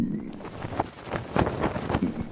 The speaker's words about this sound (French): Je dirais une voile, euh, une voile qui faceille dans le vent.